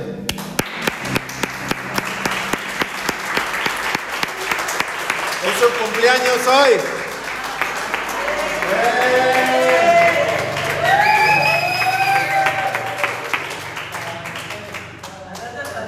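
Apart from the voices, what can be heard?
audience applause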